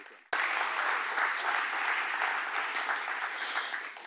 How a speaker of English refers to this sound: And so, in front of everybody, I just want to say thank you. Thank you for allowing them and, and give them applause because they, they do.